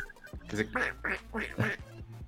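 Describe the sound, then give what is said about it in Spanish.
A quick run of about five nasal duck quacks, fairly loud, each a short raspy burst in steady rhythm over a faint low hum. “Dicen que trae, dicen que trae un, un de este que si le picas a la cabecita se oye el cue, ¿qué haces?”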